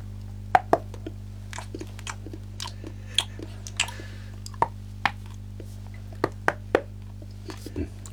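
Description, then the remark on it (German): Crisp snaps and crunches, a foley imitation of biting into a chocolate bar made with a flexible pipe, arriving in about a dozen irregular bursts over a steady low hum. “Das Abbeißen von einem Schokoriegel.”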